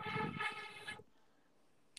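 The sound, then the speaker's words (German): A loud, droning roar like a passing airplane blares for about a second, thick with low rumble and buzzing overtones, then cuts off abruptly into near silence. “Flugzeug oder so gefühlt.”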